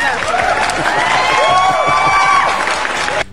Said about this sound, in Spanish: Acuérdense, ya se ponen aplausos. ¡Eso, chinga! ¡Aplausos!